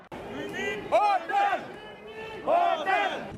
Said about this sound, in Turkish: Turistler otel isteklerini slogan atarak yetkililere duyurmaya çalıştı.